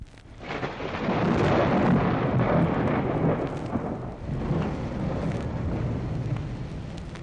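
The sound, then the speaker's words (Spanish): A deep, rolling rumble of thunder swells in quickly and stays loud for several seconds, with a steady hiss like rain underneath. No one speaks. “Cinco años tardó el hielo en derretirse alrededor de él hasta que todo se deshizo, y el elefante cayó rodando a la orilla con ruido de trueno.”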